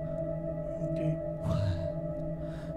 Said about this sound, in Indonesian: Setelah ketokan itu berhenti, nggak lama ganti lagi suara pintu lemari kebuka.